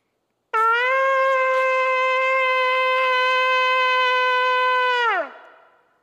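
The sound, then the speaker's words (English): A single long, steady blast on a ram's horn shofar, loud, holding one bright, brassy note for about four and a half seconds before the pitch sags and fades out. No voices. “how you make sure that your shofar is kosher”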